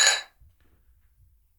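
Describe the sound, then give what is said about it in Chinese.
A single bright clink of glasses touching in a toast rings out loudly and fades within a fraction of a second, leaving only a faint low rumble behind. “来干杯， 来干杯。 为梦想干杯。”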